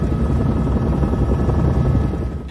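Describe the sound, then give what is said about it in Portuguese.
A loud, steady helicopter drone with a dense low-frequency rumble and rapid rotor chop, sustained throughout, with no voices. “são eles no helicóptero.”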